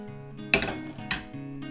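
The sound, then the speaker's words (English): Two quick clattering knocks of a pancake being flipped again in a hot non-stick frying pan, about half a second apart, over a steady low kitchen hum. “I'll flip it again. Yep, another flip.”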